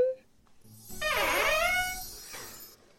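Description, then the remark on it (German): A small Advent calendar door creaks open with a single drawn-out, squeaky groan whose pitch dips low and then climbs back up, lasting over a second before fading into quiet. “Ja, dann lassen wir mal das Türchen öff sich öffnen.”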